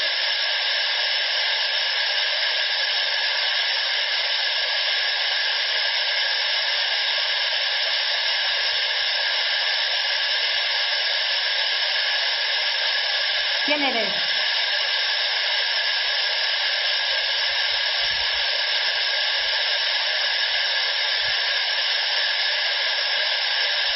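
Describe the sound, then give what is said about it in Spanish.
A steady, loud wash of white noise hisses without pause for the whole stretch, with only a brief faint downward-sliding tone surfacing partway through. No voices are heard. It is played during a fourth recording session of questions at the Casino de la cabasada at 9:41. “Ruido blanco y preguntas.”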